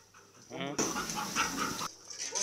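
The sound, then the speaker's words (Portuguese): A police sniffer dog of the Police of the Republic of Mozambique pants rapidly and heavily while searching a yard in Maputo for buried drugs, a steady burst of quick breathy huffs lasting about a second, with faint indistinct voices in the background. “O cão farejador percorre o quintal e em seguida descobre a droga que tinha sido enterrada.”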